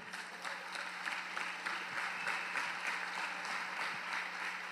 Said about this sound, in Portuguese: Vamos ficar de pé. Glória a Deus. Se você ama Jesus, dê um aplauso bem forte a Ele.